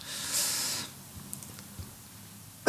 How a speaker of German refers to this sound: Gesundheit.